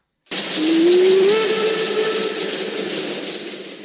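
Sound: steam train whistle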